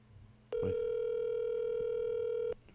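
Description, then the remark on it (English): A phone call to Chip Chantry in the Philadelphia vicinity ringing out: one steady electronic tone holds for about two seconds, loud and clear, then cuts off, with faint background hum before and after. “We're calling him in the Philadelphia vicinity.”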